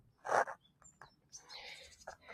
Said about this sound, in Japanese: 今日なんかすごい泣いてますね。何の鳥なんでしょうね、これはね。